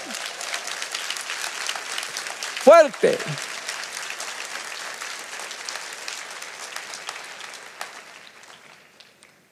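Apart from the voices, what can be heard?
applause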